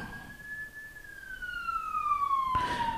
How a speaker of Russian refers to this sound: Там скорая помощь на улице э, три звонит. Не обращайте внимания, это не имеет прямого отношения к теме нашего сегодняшнего разговора.